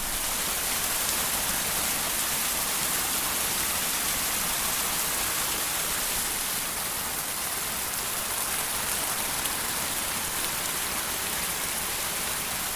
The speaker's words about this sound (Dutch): Een klein parkje tussen huizen in de archipelbuurt in Den Haag. Een vijver en een bescheiden waterval. Dit is natuurlijk heerlijk om je daar even onder te vlijen.